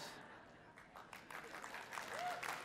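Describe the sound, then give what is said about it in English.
Faint, scattered clapping from a handful of people in a church, uneven and tentative, swelling slightly toward the end with a soft murmur of crowd noise underneath. “That was almost a clap this close.”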